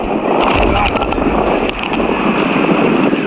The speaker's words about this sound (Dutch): Golf blijven hoog. De wind neemt toe richting halverwege. Er zijn buien en daar zit veel wind in. De golven die nemen ook toe.